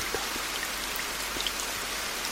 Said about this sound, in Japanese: めでたしめでたしと言いたいところですがなんと降り出した雨が止まらない3日も4日も降り続いている